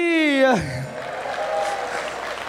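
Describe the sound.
A sustained, high voiced call slides downward and gives way to a steady burst of audience applause, a dense wash of clapping that holds at an even level until the end.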